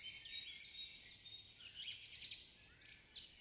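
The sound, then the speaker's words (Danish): Several birds chirp and sing together in a steady, lively chorus of bright high-pitched calls, continuous, with a soft outdoor background and no voices, as the sun shines after the rain has stopped. “Fuglene elsker, når solen skinner, og derfor synger de en glad sang.”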